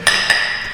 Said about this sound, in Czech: Pojďme si ťuknout tak, aby to šlo slyšet. Já vím, že už jsme si poťukali.